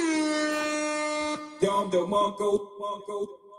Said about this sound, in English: Hey, listen, man, I'm, I'm messing with the sounds a little bit. I turned it down because I got some complaints over the weekend about the sound. You know, they told me to get rid of the horn. I said I can't get rid of the horn, so I, I turned it